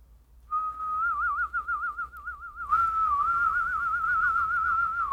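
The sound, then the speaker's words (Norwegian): Two people whistle together as part of a beatbox duet, in a wavering, warbling tune. It starts as a single clear whistle, then grows fuller and breathier partway through, with no talking. “beatbox-duett, og så begynner begge å plystre.”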